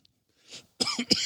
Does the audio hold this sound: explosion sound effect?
no